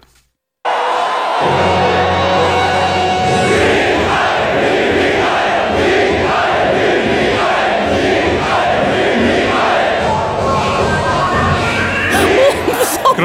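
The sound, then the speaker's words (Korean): A huge crowd of soldiers roars and cheers continuously at a military morale concert where a girl group performs, a dense, loud wall of shouting voices with rhythmic surges, as if chanting along, sustained for over ten seconds after a brief silent start. “그리하여 군 위문 공연 땐 이런 함성이 쏟아져 나오는 거죠.”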